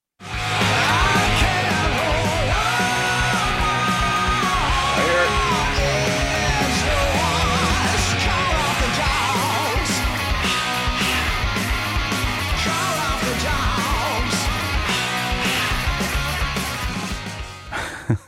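A loud, full-band rock song from a band's new record plays steadily throughout, with driving drums, dense guitars and a raised vocal, before cutting off abruptly at the end.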